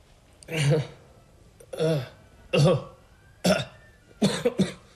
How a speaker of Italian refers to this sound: Bene, adesso tossisca.